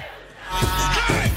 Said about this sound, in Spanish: No lo canten, grítenlo. Que se escuche.